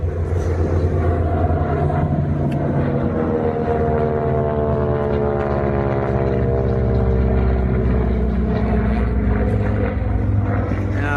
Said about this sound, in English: Okay, guys, question for you. When is a P51 not a P51? When it's a CA18 license built in Australia, Mustang. Commonwealth Aircraft Corporation once again built this particular Mustang, the CA18, based on the P51D model. Beautiful aircraft.